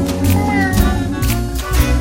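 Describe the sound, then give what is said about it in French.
A voice imitates a cat's meow in a sung, drawn-out way in a French-language song, over loud, busy music with steady drum hits, prominent across the whole short stretch. “Tout le monde, tout le monde, tout le monde sait faire miaou.”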